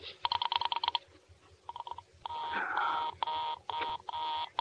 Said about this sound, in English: Murray Hill 70093 is busy. I will I can hear it. You don't have to tell me. I know it's busy.